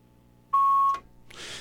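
A single steady electronic beep at a fixed pitch lasts about half a second, loud and clear over a quiet phone-line hiss, as a call on a phone-in program comes in on another line, followed by a click and a burst of line noise.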